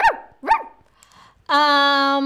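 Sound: dog barking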